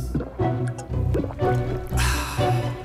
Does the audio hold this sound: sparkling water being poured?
yes